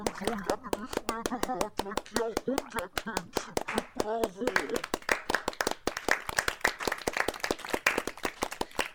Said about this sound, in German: Das Musikduo nimmt mit feierlicher Miene den Applaus entgegen.